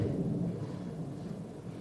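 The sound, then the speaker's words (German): A low, steady rumble of an airplane passing overhead outdoors, a continuous deep roar that holds at moderate loudness and eases slightly toward the end, with no voices. “Gut, das ist jetzt ein Flugzeug.”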